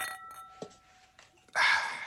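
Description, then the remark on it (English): Glasses clink together in a toast: a ringing chime lingers at first, then a louder, brighter burst of several glasses knocking together near the end. “So, but I want to make a toast to y'all.”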